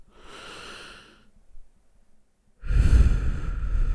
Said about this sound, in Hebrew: ארבע פעמים כאלה, שמונה פעמים נכנס, ארבע, הקפאה של ארבע, שש פעמים, שש, שש שניות להכניס אוויר, ארבע שניות לעצור אוויר, שמונה שניות לה, להוציא את האוויר. ככה ארבע פעמים להתרכז בנשימות, זה מרגיע סטרס.